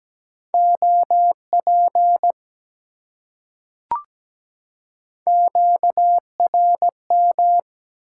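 A steady mid-pitched Morse code tone keys out common amateur radio QSO elements at about 17 words per minute in two bursts, separated by a pause with a single sharp click, with no voices.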